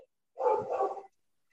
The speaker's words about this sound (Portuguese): o cachorro está tá latindo aqui, gente